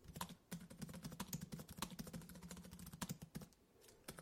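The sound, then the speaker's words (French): Rapid, steady typing on a computer keyboard, a dense stream of crisp key clicks with a low hum underneath and no voices. “je suis un ordinateur qui écrit, retouche et monte sur son ordinateur.”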